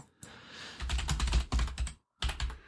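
Rapid clattering keystrokes on a computer keyboard, fairly loud, typed in quick bursts with a brief pause before a final flurry, as someone quickly googles the book 'Die Schlafwandler'.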